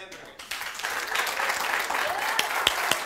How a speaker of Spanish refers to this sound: Aplauda, aplauda, aplauda. Un minuto de aplausos.